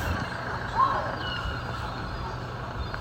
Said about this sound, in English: The Land Rover just navigating the very narrow street and almost clipping the toes of the uh, tourists you can hear behind me.